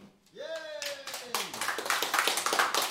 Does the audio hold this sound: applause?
yes